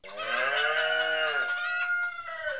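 A farmyard chorus of a hen, a rooster and a spotted cow answering: a long, loud cow moo blends with clucking hen and rooster calls, the moo dropping away halfway while the fowl sounds carry on briefly.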